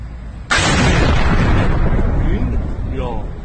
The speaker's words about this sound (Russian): Нет единой версии по поводу одной из главных международных интриг недели – атаки дронов на военные объекты в Иране. Мощный взрыв произошел в прошлые выходные в городе Исфахан в 340 километрах к югу от Тегерана.